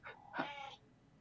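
A single short cat meow, fairly clear, with a brief rising start and a drawn-out middle that fades quickly, heard alone over a quiet background.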